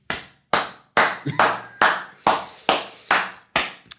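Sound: round of applause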